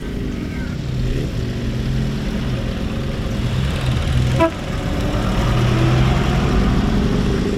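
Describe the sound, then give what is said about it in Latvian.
A vintage car engine idles with a steady, throaty rumble throughout, briefly interrupted midway by a short horn toot before the idling carries on, during a tour of Latgale manor castles in Latvia by retro enthusiasts with old cars and motorcycles. “piemēram, retro entuziasti, kas ar seniem automobiļiem un motocikletiem kopā apbraukoja taisnu Latgulas mūžas pilis.”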